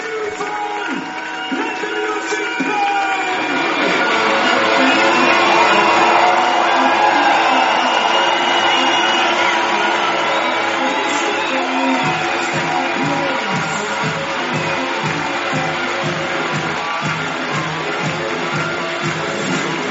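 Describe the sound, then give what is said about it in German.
A stadium crowd cheers loudly and continuously as the home team, the Stuttgart Scorpions, comes out for the GFL Süd top game against the Allgäu Comets, a dense steady roar that picks up a rhythmic pulse of clapping or beats in its second half. “jetzt wird's laut, denn jetzt kommen die Scorpions rein. Wir sind äh, mal kurz leise, machen die Atmo auf”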